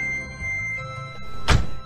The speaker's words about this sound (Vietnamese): Có một chiếc xe hơi mới đậu ngoài đường trước ngài, ngài bước lên xe, Sơ phơ vừa đóng cửa vừa hỏi